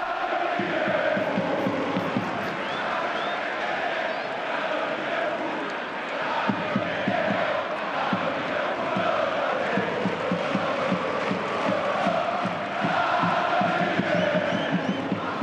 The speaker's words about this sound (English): the crowd at Vallecas were singing next year Rayo Liverpool